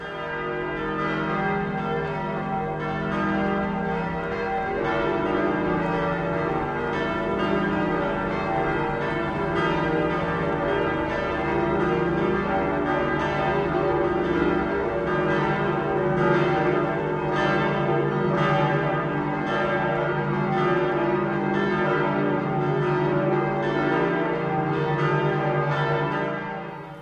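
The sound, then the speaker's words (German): Several baroque church bells, cast during the Thirty Years' War, peal together for the noon ringing in Rothenburg ob der Tauber in a dense, continuous overlapping ring, deep resonant tones mixed with brighter strikes, steady and loud throughout with no voices. “Das Mittagsläuten kommt heute aus Rothenburg ob der Tauber.”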